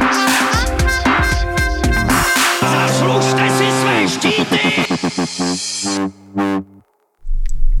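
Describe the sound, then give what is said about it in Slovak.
A short, loud intro jingle of layered, effects-heavy music with echoing tones and a dramatic voice line, breaking off abruptly into a moment of silence before a low rumble starts. “Vítajte po zvučke.”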